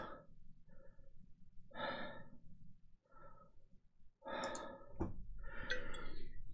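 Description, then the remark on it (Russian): Heavy, out-of-breath panting of a man who has just carried a bottle, a series of loud, raspy breaths at an uneven pace, some huffing and gasping, with no talking. “Дед запыхался, пока нес бутылку.”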